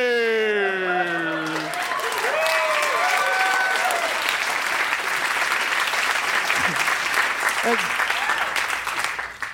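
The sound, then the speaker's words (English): A large audience bursts into steady, loud applause that fills the whole stretch, with a few whoops and cheering voices rising over the clapping near the start. “I, li- I like that applause.”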